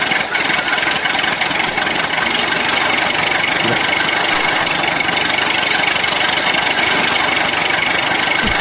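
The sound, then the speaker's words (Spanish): A car engine, recorded on a phone in the morning as its owner tries to start it, runs at a rough, steady idle with a dense rattling, knocking churn and no pauses or voices throughout; its starter motor still works. “Y todavía le sirve el motor de arranque.”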